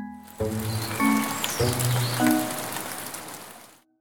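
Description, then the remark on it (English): Steady rain hisses down for a few seconds, a dense wash of drops with soft low musical tones sounding beneath it before it cuts off. “When they get really full, that water falls to the Earth as precipitation. You may know precipitation as rain or snow.”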